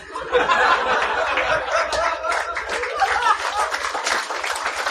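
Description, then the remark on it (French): An audience applauds steadily for several seconds, a dense crackle of many hands clapping, mixed with scattered laughter and chuckles, holding at a fairly even loudness throughout. “C'est-tu des applaudissements pour ma queue, ça?”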